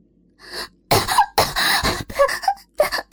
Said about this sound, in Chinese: 向后退出去，捂着嘴，死命的咳嗽着。